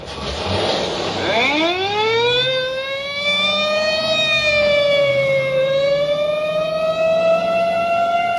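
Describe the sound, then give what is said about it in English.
A loud police squad car siren winds up from low to a high, sustained wail and holds steady with slight pitch waver, continuous with no talking. “Or in a screaming squad car.”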